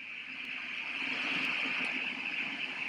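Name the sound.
white noise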